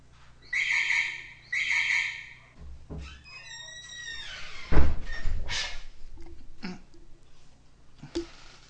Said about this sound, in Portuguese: Peraí que eu vou fechar a porta aqui.